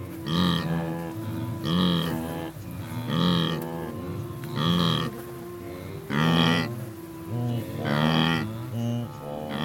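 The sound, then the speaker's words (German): A wildebeest herd gives a steady series of loud, nasal grunting calls, about seven in all, spaced roughly every second and a half, each a harmonic honk like a low moo, with no talking. “Gnus hingegen mögen das kurze, abgefressene Gras.”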